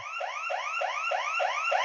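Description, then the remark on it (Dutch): A burglar alarm blares with a rapid, repeating electronic whoop, each rising sweep following the last about four times a second, loud and steady with no voices. “Normaal gaat deze af als een inbreker in je huis komt, dan functioneert je alarmsysteem goed.”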